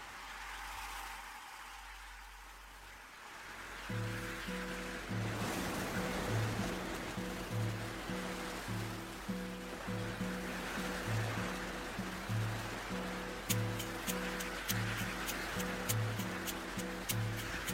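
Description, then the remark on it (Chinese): Steady rushing ocean surf fills the opening seconds, then a rhythmic song with a thumping beat and bright plucked notes starts and plays over the continuing wash of waves. “我们一起伴着大海的声音翩翩起舞吧。”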